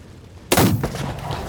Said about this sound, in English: A gunshot rings out and scatters everyone to cover.